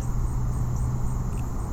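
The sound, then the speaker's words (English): A steady outdoor ambience: a continuous low rumble of road traffic, with a faint high insect-like hum of crickets carrying on evenly throughout. “I hear the the crickets. I hear traffic noises from the road.”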